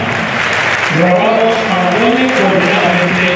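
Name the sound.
stadium crowd applauding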